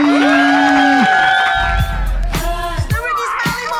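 A burst of crowd cheering with high whoops and shouted voices layered over one another, loud, with a low rumble underneath as the excitement builds and swells.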